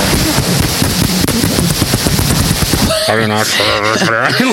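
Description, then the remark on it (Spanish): A voice imitates a helicopter into a microphone with a rapid, loud, steady chopping flutter lasting about three seconds, then breaks off into voiced talk or laughter. “Él me dijo cómo se hacía un helicóptero en el micrófono.”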